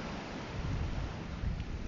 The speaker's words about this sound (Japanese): まあ、今日はあの話よりも、この波の音を聞きながらのラジオを聴いてもらいたかったので、この辺にしようかなと思います